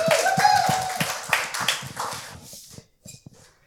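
A crowd applauds with dense, rapid clapping that starts strong, gradually thins out and fades, ending in a few scattered last claps. A brief whistle-like tone rises early on.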